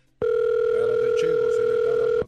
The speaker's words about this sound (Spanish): A ver, márcale. Ah, no bueno, vas a marcar. No este número. Como dicen ahí, suena un teléfono.